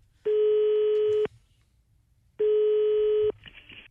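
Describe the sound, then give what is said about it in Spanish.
A phone call to the store Marqueta la Mexicana going through after a number is dialed: two long, steady, buzzy ringing tones, each about a second, separated by a pause, over faint background noise. “Ok, márcale, por favor”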